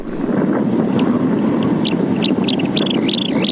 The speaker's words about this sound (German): die einzige Aufnahme, die ich gefunden habe, überhaupt von diesem Brutritual des Sichelstrandläufers. Das ist nämlich eine ganz schön unwegsame Gegend, wo der so brütet.